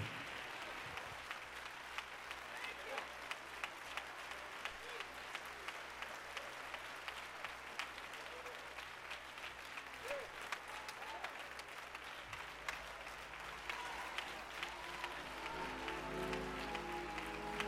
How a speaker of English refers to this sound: Now, for about 30 seconds, just clap those hands. Tell the Lord. Thank you.